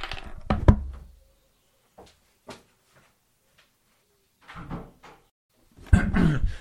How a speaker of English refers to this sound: there's a door banging which i'm just going to go and stop because it's going to bang for the entire time because in case you hadn't noticed listeners summer's gone weather's gone rubbish hasn't it so now there's wind everywhere wind and rain